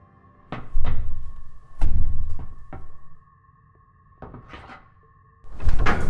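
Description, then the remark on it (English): A stuck cupboard door, a Chingford Winston 703 design, thuds and rattles as it is shoved from inside several times in uneven bursts, over a steady low electronic hum, with no voices. “The door's stuck.”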